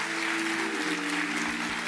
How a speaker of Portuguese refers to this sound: Você pode aplaudir bem forte o nome de Jesus?